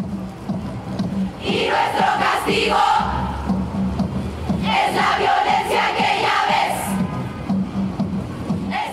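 A large crowd chants loudly in unison at a performance by a Chilean feminist collective in Santiago, Chile, on 25 November 2019, voices rising and falling in rhythmic waves with a steady beat underneath, sustained throughout with a brief dip in the middle.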